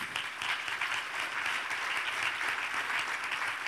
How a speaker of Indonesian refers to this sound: Berikan dulu tepuk tangan bagi Tuhan kita.